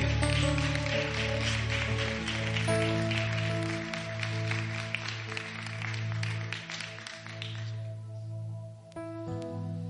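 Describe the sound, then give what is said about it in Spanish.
A church audience claps steadily for the Lord over sustained organ-like keyboard chords, the applause dense and fairly loud before fading out near the end, leaving the music to ring on alone. “Alguien debe darle un aplauso al Señor.”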